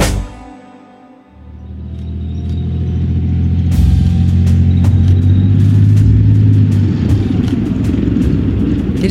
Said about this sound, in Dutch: het gebrom van de motor en het geluid van de rupsbanden over ruig terrein van een tank Leopard 2. De Leopard 2 is een zware gevechtstank waar vier bemanningsleden voor nodig zijn om te besturen en te bedienen.